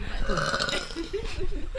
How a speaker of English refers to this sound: oh, I burp lah.